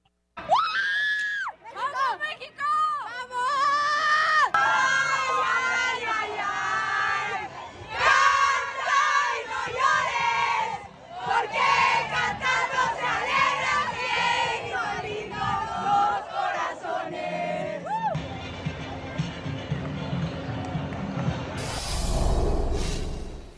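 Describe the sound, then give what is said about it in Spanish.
Players of the Mexican women's national team loudly celebrating a win over Germany, overlapping shrieks and cheers blending into group chanting and singing, continuous, ending in a rush of noisy commotion. “Vamos a escuchar el festejo de las seleccionadas mexicanas después de derrotar al equipo de Alemania el día de ayer.”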